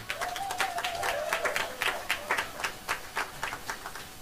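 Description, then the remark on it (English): A crowd applauds to thank a man who has just gone out the door, with dense, steady clapping that gradually thins into fewer, more separate claps as it winds down near the end. “Come on, put your hands together and thank God for him.”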